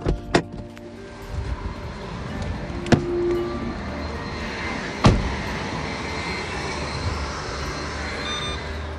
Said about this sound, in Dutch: Lekker, zo'n bladblazer.